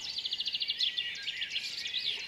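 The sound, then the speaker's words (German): Several birds chirping and trilling at once at 5 a.m. on a Sunday morning in front of a house's front door, a rapid repeated trill standing out over a soft, steady background hush; no one speaks. “Einen Sonntagmorgen um 5 Uhr vor der Haustür.”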